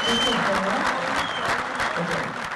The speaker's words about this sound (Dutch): In de zaal werd er een beetje meegeklapt en een beetje meegezongen.